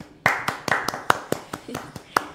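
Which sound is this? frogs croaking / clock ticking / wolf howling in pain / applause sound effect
applause sound effect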